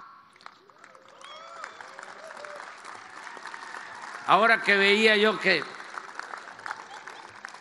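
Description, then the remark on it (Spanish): Steady applause from people working at archaeological sites, a dense patter of many hands clapping, runs through the whole stretch while a man speaks over it, his voice rising louder near the end. “se daba a conocer lo de un sitio arqueológico, aplaudían porque están trabajando, ¿verdad?”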